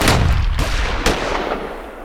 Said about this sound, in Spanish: Instantáneamente una descarga de rifles le dejaron muerto en el suelo, pero la advertencia salvó a la compañía de una emboscada.